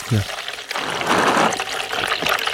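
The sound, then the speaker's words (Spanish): Hot water is poured into a mate gourd in a steady stream for about two seconds, a bright splashing trickle, with a short voiced sound at the start. “Aunque podría ser cualquier tipo de chorrito.”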